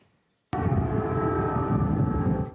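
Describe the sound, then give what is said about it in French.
An air raid siren wails loudly at night in Kyiv, Ukraine, sounding repeatedly, its sustained droning tone starting abruptly after a brief moment of silence and holding steady, with a rumbling, noisy undertone. “Cette nuit encore à Kiev, les sirènes anti-bombardement ont retenti à plusieurs reprises.”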